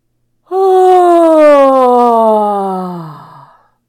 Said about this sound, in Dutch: alsof ik nu heel erg moet gapen. Dus ik doe mijn mond open en daarbij adem ik in